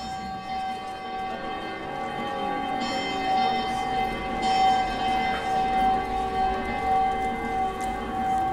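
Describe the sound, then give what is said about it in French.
Sustained, resonant tones of the city's church bells, transformed with recorded Loire river water sounds and replayed on the Loire bridges, ring together and linger over a steady wash of flowing river water, blended into one continuous, moderately loud soundscape with no voices. “qui s'activent dans la ville qui ont des sons qui sont répliqués sur les ponts de la Loire, qui transforment les sons des cloches avec des éléments, des bruits d'eau de Loire qu'il a enregistrés.”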